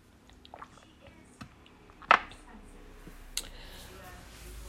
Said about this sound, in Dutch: Ik ga heel even een slokje nemen.